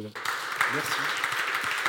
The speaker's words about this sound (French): Je, vous remercie, je remercie, tous les intervenants de cette table ronde. Euh, je vous demande de les applaudir.